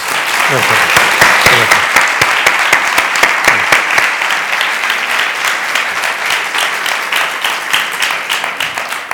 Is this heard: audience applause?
yes